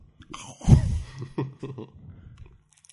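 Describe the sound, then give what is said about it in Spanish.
Wet, irregular mouth noises of someone chewing into a microphone as a test of how the microphones sound: a loud crunchy burst followed by several smaller smacking bites, fading toward the end. “Bueno, ahora vamos a probar cómo suenan los micrófonos masticando.”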